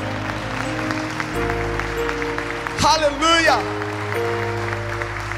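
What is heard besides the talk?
audience applause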